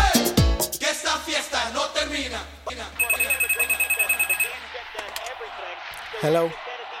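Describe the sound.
A WhatsApp ringtone trills briefly in rapid, bright electronic pulses for about a second and a half, surrounded by people talking before and after it.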